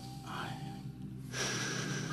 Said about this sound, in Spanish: Respirando, buen esfuerzo.